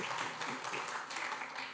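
A crowd applauds steadily for a couple of seconds, a dense, crackling wash of many hands clapping at once, fairly soft and somewhat distant, with no one speaking over it.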